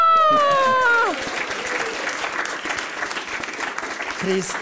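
An audience claps steadily as a vote, in a dense, continuous wash of applause, opening with a short tonal jingle that slides downward before the clapping takes over.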